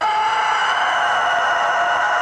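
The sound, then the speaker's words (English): A rooster crows in one sustained, strained call that fills the whole moment, loud, with no pauses or other sounds around it. “That's not Godzilla. That's a rooster.”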